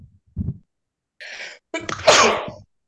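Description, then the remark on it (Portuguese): A single loud sneeze: a short breathy inhale, a hissing build-up, then a sharp explosive burst that trails off, with no talking over it. “Saúde.”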